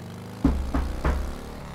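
The army knocks three firm knocks on a wooden yard door, evenly spaced, with a low engine-like rumble humming underneath throughout.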